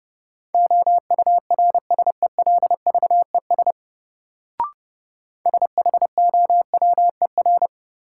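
Rapid Morse code at 30 words per minute, a practice drill of common words: a single steady mid-pitched tone keyed into quick dots and longer dashes, in two runs separated by a pause with a brief click. No voices.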